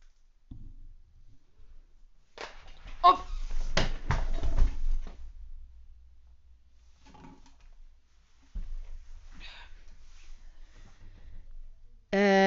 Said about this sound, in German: da ist wohl mein Stuhl nach hinten gekippt. Das tat weh.